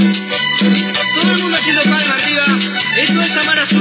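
Cumbia band music plays loud and up close, with a steady bouncing bass line, bright rhythmic percussion and keyboard melody filling the whole stretch without any talking.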